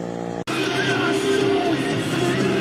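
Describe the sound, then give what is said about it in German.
A brief steady tone cuts off, then a loud motorcycle engine roars as it drives past, its pitch shifting slightly under a wash of road noise. “Und jetzt kommt ein Motorrad und ich sage Komisch.”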